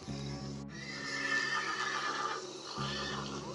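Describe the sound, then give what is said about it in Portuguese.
An old horse rears and thrashes, letting out one long, loud whinny, its shrill, quavering cry rising and then trailing off over a low, steady rumble. “Caboto fez o que pôde para acalmar o velho cavalo”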